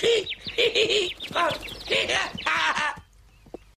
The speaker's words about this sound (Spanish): ¡Ah, ¡Un pájaro!